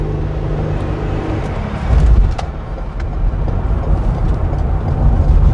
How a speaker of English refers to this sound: Oops, sorry merging. I'm merging on a highway right now with a giant semi truck on my tail, fighting for my life.